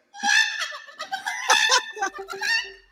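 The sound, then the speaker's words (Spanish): A human voice imitates a hen during a farm song, producing a run of bright, strained clucks and squawks in a rapid, uneven series, fairly loud, with no other talking. “Y en la granja una gallina, ea, ea, yo. ¿Y la gallina?”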